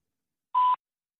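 A single steady electronic beep, a clear mid-high tone lasting about a quarter second, alone in silence: an answering machine's prompt tone to leave a message.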